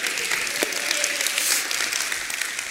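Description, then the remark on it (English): An audience applauds a couple's 19 years of marriage, a dense wash of many hands clapping at an even, fairly loud level with no voices standing out. “They're applauding your ability to be married to me for 19 years.”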